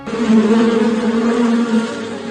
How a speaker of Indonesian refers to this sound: Sejak saat itu, kawanan lebah madu tinggal di pohon apel.